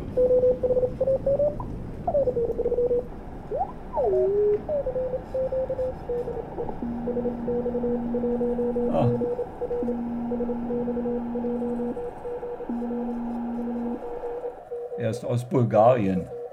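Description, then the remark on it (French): A Bulgarian (LZ) amateur radio station calling CQ to establish contact: steady low beeping tones in long on-off runs over a constant radio hum, with warbling tuning sweeps early on and a crackling burst at the end. “Er er Il appelle CQ. Il veut établir la communication.”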